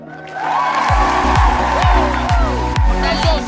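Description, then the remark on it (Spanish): An audience applauds and cheers with scattered whoops, steady and fairly loud, over music with a regular thumping bass beat, as contestants walk the runway at the Mrs. Mamá Perfecta 2023 beauty pageant. “Las candidatas están desfilando por la pasarela. Aplausos, por favor.”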